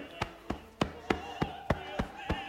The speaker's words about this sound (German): Ich bin jetzt beim linken Bein. Gehe über den Fußrücken, die Außenseite des Beines hoch und klopfe hier, wie eben,